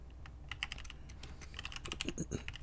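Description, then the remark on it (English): Rapid, irregular clicking of keys on a computer keyboard, steady bursts of crisp taps with no talking over them. “No, he's typing.”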